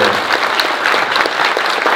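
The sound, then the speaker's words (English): An audience at a convention claps steadily for a film guest, a dense, even wash of many hands clapping at once, loud and sustained with no voices standing out. “And if any of you, yes, round of applause.”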